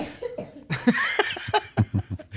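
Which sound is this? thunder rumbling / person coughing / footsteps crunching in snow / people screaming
person coughing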